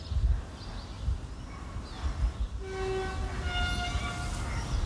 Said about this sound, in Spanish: ya escuchamos de fondo los avisos sonoros que va emitiendo conforme se acerca a un paso a nivel